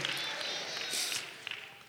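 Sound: audience applause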